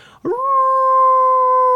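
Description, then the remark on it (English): A man, a father, imitates a coyote howl: one loud, sustained tonal wail that rises quickly at the start, then holds a steady pitch, with no talking. “so my dad he's just like you know I can make a really good coyote call yeah um, and so he you know does the whole”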